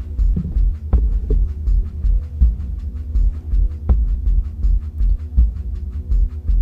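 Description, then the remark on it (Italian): Steady, repetitive shamanic drumming plays as background music during a guided breathing meditation: deep, soft thumps in an even, heartbeat-like rhythm over a low droning hum, with no voices. “Alla musica di sottofondo, a questi tamburi sciamanici.”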